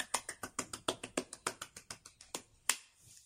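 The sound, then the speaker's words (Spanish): Brief applause of about sixteen crisp, evenly spaced claps, close and fairly quiet, loosening toward the end with one final sharper clap; nobody speaks. “Así que amor en re sostenido. Aplausos.”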